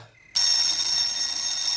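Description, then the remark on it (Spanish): A doorbell rings on and on: after a brief quiet moment, a loud, bright, high-pitched buzzing ring starts abruptly and holds steady without a break, with no one speaking. “Ojalá te quedes pegado al timbre.”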